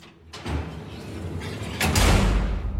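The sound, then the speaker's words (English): A heavy metal jail cell door in Outcast rolls along its track with a grinding rumble, building in loudness before clanging shut with a broad metallic crash that lingers to the end. No voices are heard. “There's the jail cell. Yeah, I hear that.”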